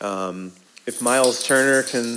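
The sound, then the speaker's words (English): A dog's collar jingles with light metallic clinks, fairly bright, running beneath a man who keeps talking over it. “sorry, that's my dog.”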